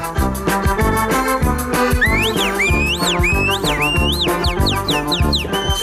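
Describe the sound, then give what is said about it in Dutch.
Over steady background music, a whistler whistles imitation bird calls to lure blackbirds: swooping, warbling phrases begin after a couple of seconds, then turn into a quick run of short, sharp chirps. “je moet me niet storen, want ik ben net al die vogels hier aan het lokken.”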